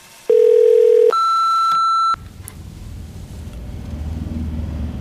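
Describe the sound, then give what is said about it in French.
A loud phone call tone: a steady low beep, then a higher sustained beep, about two seconds in all, followed by a low, continuous rumble from inside a car stuck in traffic, where the call is being made. “Allô, ma chérie Je t'appelle depuis ma voiture.”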